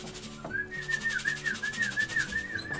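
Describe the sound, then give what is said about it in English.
A person whistles a short, wavering tune, the pitch sliding gently up and down over a soft, steady musical background. The whistle is clear, lasting a few seconds. “Just give me a whistle.”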